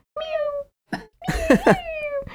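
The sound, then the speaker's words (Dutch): A voice imitates the high, cat-like cry of a small plastic toy figurine that speaks when its eyes are covered: a few sliding, squeaky meows with a short breathy burst between them, fairly loud with no talking. “dus de geluidjes van Mew”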